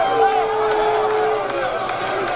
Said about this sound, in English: The crowd's booing because they're in Alabama, the team that won.